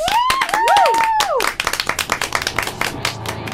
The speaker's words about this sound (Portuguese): Para o sol neste país uma salva de palmas.